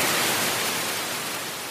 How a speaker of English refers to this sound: Echo Moskvy turned to static just as the announcer was talking about Russia's censorship watchdog